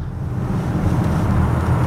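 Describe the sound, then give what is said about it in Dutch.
A four-wheel-drive compact SUV weighing almost 2,200 kg accelerating, its steady low engine and road drone holding loud throughout and swelling slightly toward the end, with no voices. “We gaan weer even op het gas”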